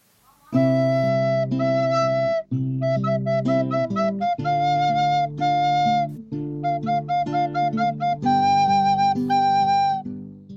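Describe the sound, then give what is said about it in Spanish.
A flute plays a lively melody of sustained, pure-toned notes, mostly smooth and connected with a brief pause early on, accompanied by steady lower tones underneath. No one speaks. “Viborita tiesa que silba alegre si alguien te besa. ¿Qué es? La flauta.”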